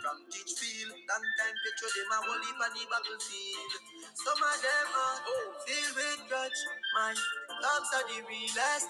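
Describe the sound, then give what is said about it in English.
An Afrobeat-style music track plays steadily at a full, even level, with a melodic sung vocal line gliding over dense layered instrumentation; no one talks over it. “What's this called? This is like Afro swing or like what's yeah, the genre?”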